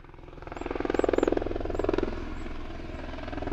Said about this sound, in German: Der Lärm eines Helikopters zerreißt die Stille im kleinen Grenzort Lavorischkes.